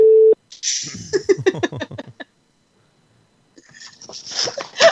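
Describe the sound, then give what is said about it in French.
A short steady phone tone is followed by a rapid, buzzy electronic ringing pattern over a line. After a brief silence, muffled, noisy line sounds come in. “là, ça, là, ça, fait une sonnerie et”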